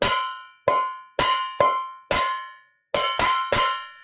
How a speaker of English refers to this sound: they made this horrible clanging sound. And he and he picked one of them up, and there was some other thing there, and he just started banging on it